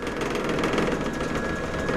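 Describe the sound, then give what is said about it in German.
A construction elevator rated for 850 kilograms rides up scaffolding at a southern transept to almost 45 metres, its motor running with a steady mechanical drone and rattling hum, continuous and fairly loud throughout, with no one speaking. “Der Aufzug kann 850 Kilogramm transportieren.”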